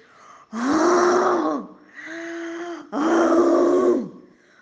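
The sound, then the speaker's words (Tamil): A voice imitates the angry roar of a lion king caught in a hunter's net: three loud, growling vocal bursts, the middle one shorter and softer, each with a rough, strained tone and brief pauses between. “அப்போது எதிர்பாராத விதமாக ஒரு வேடன் விரிச்சு வச்சிருந்த வலையில் சிங்கராஜா சிக்கிட்டாங்க சிக்கின சிங்கராஜானால அந்த வலையிலிருந்து வெளியே வரவே முடியல அந்த வலையிலிருந்து தன்னை எப்படி விடுவிச்சுக்கிறதுன்னு புரியலை உடனே கோபமாக கர்ஜிக்க ஆரம்பிச்சிருச்சு”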